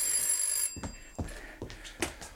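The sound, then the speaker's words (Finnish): A telephone bell rings briefly with a bright, steady metallic tone, then cuts off, followed by several sharp clicks and knocks, like a handset being picked up and handled. “Rouva Rehtorska, puhelimessa opettaja Kurvi.”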